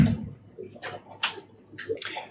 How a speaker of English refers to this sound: All right, refill my glass here. There we go.